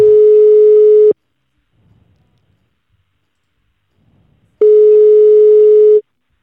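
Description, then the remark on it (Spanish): A telephone ringback tone from an outgoing call to an artist: two loud, steady electronic beeps about a second long, separated by several seconds of near silence with faint background noise, heard alone without any talking. “yo casi prefiero llamar a Rosco y que nos cuenten un poco”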